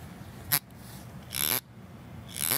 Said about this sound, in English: So I can kind of make it like vibrate. I can hear it. Yeah, maybe I'll I'll put it up to my mic.